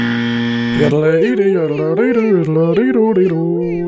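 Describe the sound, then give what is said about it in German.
A steady buzzing tone gives way to a short, loud burst of solo yodeling, a single voice leaping rapidly between low and high pitches for a few seconds, a short yodeling jingle used as an alarm sound effect. “Jetzt habt ihr mich kurz jodeln gehört.”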